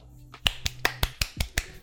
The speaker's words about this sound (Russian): По щеке хлопал.